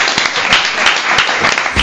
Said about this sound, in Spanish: Y de momento te llevas este aplauso de nuestro público.